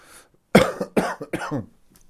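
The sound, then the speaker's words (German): A heavy cough: three or four harsh, loud bursts in quick succession, with a short quiet breath before them and no speech. “Das war jetzt ein fetter Husten”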